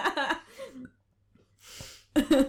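A throaty burp rumbles out between short vocal noises, followed by a breathy exhale and a brief burst of voice.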